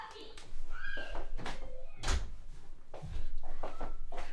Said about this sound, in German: Warte kurz, ich muss mal kurz die Tür zu machen.